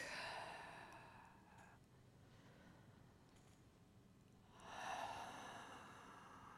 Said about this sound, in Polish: Wdech i wydech. Wdech i wydech.